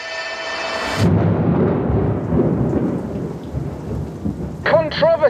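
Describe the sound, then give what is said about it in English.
Heavy rain pours down in a dense, steady hiss with low rumbling underneath, suggesting a storm; the rain flooded a rally bivouac at Al Artawiya. A brief tonal sound comes before it, and a few warbling tones cut in near the end. “Instead, that bivouac was flooded. After the rain,”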